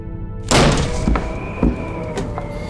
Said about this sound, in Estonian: vintpüssi päradega löödi uks sisse. neli neid oli.